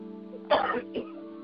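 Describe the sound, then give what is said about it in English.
A person clears their throat in one rough, gravelly burst followed by a brief second rasp, fairly loud over a steady low hum. “No, I'm I'm fine. I'm just clearing my throat.”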